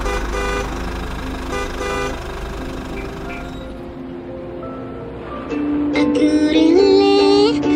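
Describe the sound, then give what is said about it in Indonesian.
A steady rumble of idling traffic in a Jakarta traffic jam with scattered car horns, building to a cluster of loud, overlapping honks near the end. “Kalau mau, yang punya rezeki lebih untuk beli mobil, meski mencicil, malah harus berangkat lebih pagi lagi supaya tidak terjebak macet.”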